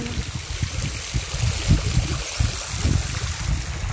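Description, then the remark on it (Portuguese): A steady, continuous rush of flowing water from a waterfall, with a broad hiss and a low rumbling churn, uninterrupted, with no voices. “uma respiração profunda e nesse estado de relaxamento você vai sair da cachoeira”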